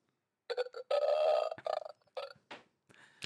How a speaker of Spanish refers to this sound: tenemos aquí un montón de, sonidos, ¿no? Por ejemplo, el, el eructo, ¿vale? Lo voy a poner si no os importa.